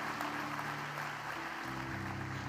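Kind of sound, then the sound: crowd, audience applauding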